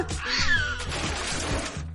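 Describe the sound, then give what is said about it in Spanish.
A cat lets out a drawn-out, wavering, loud meow over a steady background hum with no voices. “¿Has dejado la ventana abierta? ¡El gato se puede escapar!”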